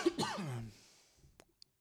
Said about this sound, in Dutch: of drie keer hoesten, daar kan je ook mee beginnen. Eh, Dat, is ook een goeie. Ja, dan beginnen de luisteraars zich een beetje, een beetje zorgen te maken.